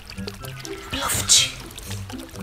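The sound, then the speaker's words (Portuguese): A short burst of hot water pouring and splashing into a cauldron, bright and hissy, rising for about half a second and then fading, with a voice murmuring underneath. “Só que ele não contava com a esperteza do porquinho, que colocou um caldeirão de água quente embaixo da chaminé.”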